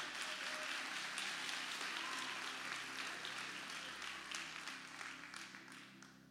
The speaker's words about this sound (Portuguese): Pode aplaudir a Jesus. Aplaude a Ele bem forte.